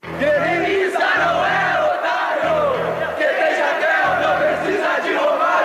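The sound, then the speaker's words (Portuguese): A large crowd of Grêmio football supporters chants loudly in unison about Jardel, taunting Romário, voices rising and falling in a sung pattern, while a deep pulsing beat, likely drums, thumps in repeating bursts beneath. “o Grêmio tinha Jardel e a torcida tricolor já provocava o tetracampeão mundial.”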